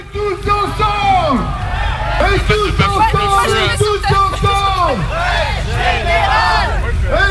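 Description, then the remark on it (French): A French protest march crowd at night chants slogans, led by a speaker on a CGT union truck, many voices shouting together in loud, overlapping rising and falling calls that keep up steadily over a constant roar of hubbub. “Et puis ça y est, il fait nuit et le cortège démarre un peu laborieusement niveau slogan, mais on se marre bien parce que le speaker du camion CGT est particulièrement en forme.”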